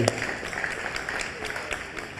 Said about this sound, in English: we are honoring grandparents today. One more time, can we clap for all of our grandparents in the house?